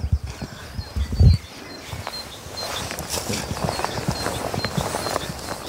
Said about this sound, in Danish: nu står hestene op på en bakke mellem træerne